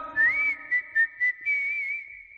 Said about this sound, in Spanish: No sabes silbar. A ver. ¡Silban! ¿Cómo es? Yo hago el silbido.